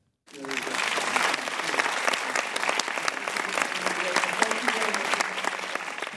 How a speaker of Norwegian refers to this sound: Det skjedde under filmfestivalen i New York, og der var både regissøren og Liv Ullmann, og de fikk stående applaus.